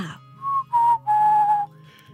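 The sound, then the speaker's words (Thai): A father whistles to call his family together: three clear whistled notes in quick succession, the last one held longest, rising and sustained like a call, loud with a low hum underneath and no talking. “แดดก็ผิวปาก เรียกสังสรรค์แล้วถามว่า”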